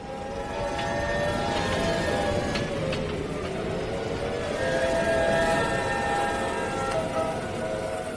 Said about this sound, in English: They say it's like a freight train, like a woman or a banshee screaming. And this summer, hurricanes Harvey, Irma, Jose, and Maria howled through trees, houses, schools, and businesses, cascading water as they trashed Texas, Florida, Puerto Rico